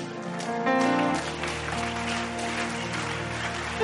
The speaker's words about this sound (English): Oh, come on, increase that clap offering for me. Increase that clapping for me because favor is about to locate you.